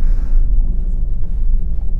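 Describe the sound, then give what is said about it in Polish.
A steady low rumble fills the cabin of a car driving slowly from home to an office in Warsaw, with very little traffic on the roads: a constant engine and road drone with a brief airy hiss at the start and no voices. “Ja e, dzisiaj e, jestem w Warszawie i ruszam właśnie spod domu samochodem, jadę sobie do biura powoli.”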